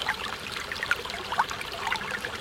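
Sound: flowing river water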